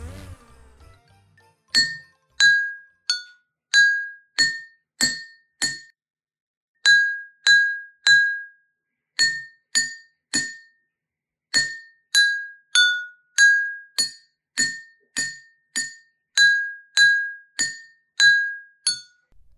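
Several identical drinking glasses holding different amounts of water, one full, one with less, one half full and one empty, are tapped with a spoon one after another, ringing out bright, clear tones at a few different pitches in a steady, tune-like series of short chimes, with no talking.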